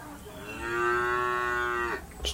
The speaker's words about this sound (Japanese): 牛の鳴き声で出迎えさせていただいております